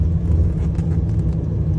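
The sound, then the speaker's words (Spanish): A BMW M5 car drives steadily along a road, its engine a continuous low rumble with constant road noise, the car having play in its suspension arms and not turning well, with no one speaking. “Un M5, se me va para afuera.”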